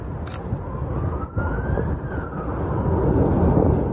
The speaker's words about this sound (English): Well, that's the sound of a Russian airstrike on Mother's Day at a Ukrainian school in the eastern village of Bilohorovka. It could be among the deadliest since Russia invaded Ukraine on February 24th.